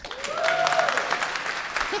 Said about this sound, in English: Ballers is a great show. Round of applause if you like Ballers.